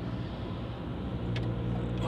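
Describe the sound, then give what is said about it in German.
Steady low rumble of road traffic, a car engine droning with a broad, continuous hum and a brief brighter hiss near the end, no voices. “Ey, Verkehr. Dieser Typ.”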